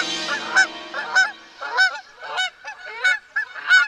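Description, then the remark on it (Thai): A goose honks over and over, about six loud, nasal, harmonic calls in a steady uneven rhythm, each a short rising-falling squawk, with no talking alongside. “ว่าแล้วห่านตัวหนึ่งก็ได้เริ่มต้นสวดมนต์ มันได้สวดบทที่ค่อนข้างยาวว่า”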